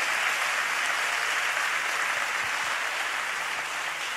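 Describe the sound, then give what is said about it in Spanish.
Sustained, dense applause from a church audience for Jesus, a steady wash of many hands clapping at full volume throughout, with no voices rising above it. “Demos un fuerte aplauso Jesús.”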